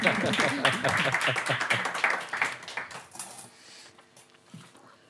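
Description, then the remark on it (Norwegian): An audience applauds to welcome authors at a book talk, with dense, crackling clapping that holds steady for a few seconds, then thins out and fades to scattered claps near the end. “Gjerne en liten applaus for det, altså.”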